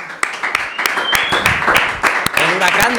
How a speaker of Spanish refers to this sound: Pero me gustaría que saludara a Isaac Fonseca, porque por alusiones yo creo que Isaac Fonseca se debe hacer presente en la encerrona. un aplauso.